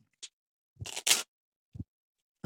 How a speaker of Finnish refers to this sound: Ja silloin Faija opetti suurin piirtein, olisiko mä ollut ala-asteella, niin tota, opetti, että miten, miten kortit sekoitetaan.